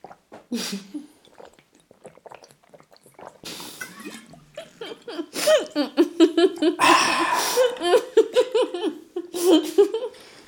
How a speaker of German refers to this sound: War das erfrischend. Wir haben gerade richtig pervers zusammen Wasser getrunken. richtig eklig so.